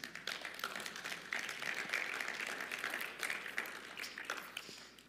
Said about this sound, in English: Yeah, that's worth a clap. Absolutely.